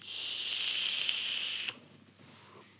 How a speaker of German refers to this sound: Und zwar bin ich jetzt unter die Vapor gegangen. Ich bin jetzt Hipster-Raucher. Hipster-Vapor. Hipster-Vape.